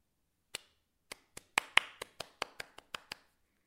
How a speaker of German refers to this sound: Sicherheitshalber klatschte sie in die Hände.